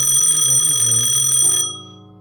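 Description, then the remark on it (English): A telephone bell in a detective agency's office rings in one loud, steady metallic burst of about a second and a half, then cuts off and leaves a brief fading ring. No one speaks. “I hadn't decided whether I should confront Irene, look for the letters, or drop the case when the phone rang.”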